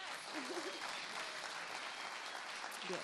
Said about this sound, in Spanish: Le damos gracias también a quienes nos han seguido por esta transmisión, a quienes están presentes y a todo nuestro equipo técnico y creativo que ahora les pasaremos lista, no sin antes darles primero un aplauso.